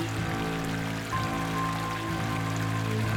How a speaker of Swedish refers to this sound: Först var det bara som en liten rännil men snart forsade det fram som ett vattenfall rakt ner på hallgolvet.